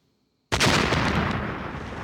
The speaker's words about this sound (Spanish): La explosión del cañón.